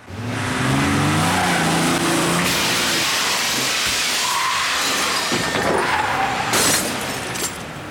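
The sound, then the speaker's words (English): A Jeep's engine revs and accelerates as it is driven through a glass showroom door, glass shattering in a loud crash, followed by further crunching bursts and tinkling debris as the engine keeps running; no one speaks. “So he proceeds to drive the Jeep right through the showroom door.”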